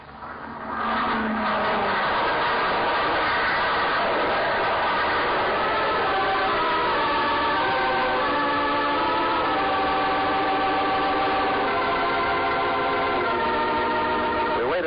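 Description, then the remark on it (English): A small airplane engine drones loudly and steadily as the plane turns and comes in low across a field, its buzzing tone shifting slightly in pitch as it passes, with no voices present. “Now, come in across field. He's even lower.”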